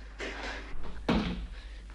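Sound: door opening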